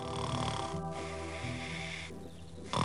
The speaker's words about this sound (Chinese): 这时，一位猎人碰巧从屋前走过，听到了这奇怪的呼噜声。 这是小红帽的外婆的家吧？外婆怎么这样打呼噜？